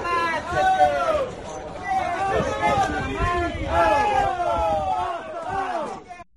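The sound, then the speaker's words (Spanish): A crowd at a racing circuit shouts and yells in agitation during a fistfight, calling for it to stop, many overlapping voices raised at once, loud, in continuous waves for several seconds. “Bueno, basta, Luca, basta, gritaba la gente. Ahí veis el sonido de la pelea.”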